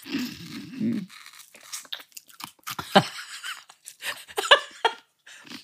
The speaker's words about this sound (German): es ist noch nicht so weich, dass man es abbeißen kann. Das ist wie richtig wie ein Eiswürfel